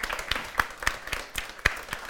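Scattered clapping from a small group: sharp, uneven hand claps, about eight over two seconds, moderately loud with no voices over them.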